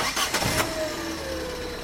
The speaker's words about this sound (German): Er startet erneut den Motor